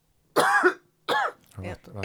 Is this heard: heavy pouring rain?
no